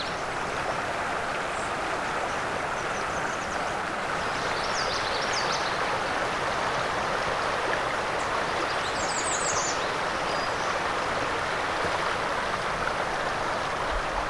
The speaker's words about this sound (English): think I heard Northern Parula amongst all that song too. There's a lot going on in here.